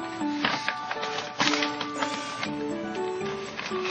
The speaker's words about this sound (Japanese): というわけで、早速開封していこうかなと思います。このガムテープの切り方がいいね、これね。紙袋だったんですね、これね。